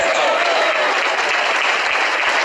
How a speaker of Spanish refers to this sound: después ese aplauso al Señor